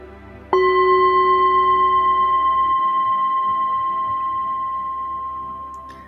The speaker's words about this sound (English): And with a deep, loving blessing, I send you off into your evening. And at the sound of the bell, come back a little bit more grounded.